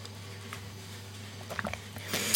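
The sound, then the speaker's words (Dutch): A quiet sip of water: faint wet mouth clicks and a soft gulp over a low steady hum, ending in a brief breathy rustle. No one speaks. “Mooi, ik nam even een slokje water.”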